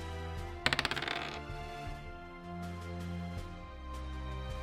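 A quick rattling clatter of dice tumbling across a hard surface, about half a dozen sharp clicks in under a second, fairly loud over a steady low musical background. It is a save-versus-death roll that needs an 11 or more and comes up 12.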